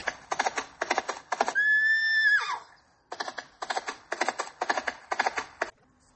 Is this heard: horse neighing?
yes